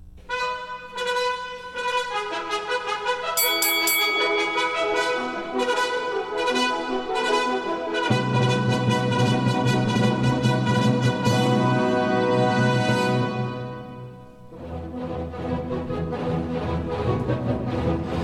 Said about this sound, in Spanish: Estamos escuchando la obertura de Guillermo Tell.